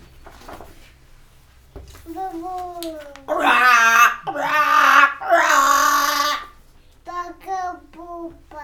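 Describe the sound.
A voice imitates a baby crow croaking again, giving three loud, drawn-out, raspy caws in a row, with quieter speech just before and after.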